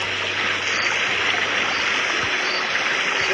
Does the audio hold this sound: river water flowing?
yes